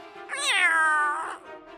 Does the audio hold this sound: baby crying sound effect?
no